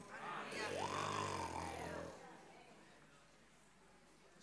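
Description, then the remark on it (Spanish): A person imitates a lion's roar with a single long, loud, rumbling growl from the throat that rises and then trails off over about two seconds, followed by quiet room tone. “Pero de repente, allá en la distancia, se oyó el rugir del león.”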